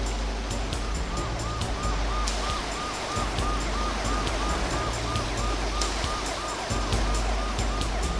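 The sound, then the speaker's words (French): Steady rain hisses throughout at night after a plane crash in a soybean field in Roseland, Indiana, and soon a wailing emergency siren joins in, rising and falling repeatedly beneath the downpour. “Après, on n'entendit plus que la pluie tomber, puis le bruit des sirènes dans la nuit.”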